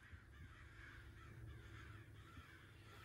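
Several crows caw harshly in overlapping, repeated calls over a steady low rumble, forming a continuous raucous chorus with no talking.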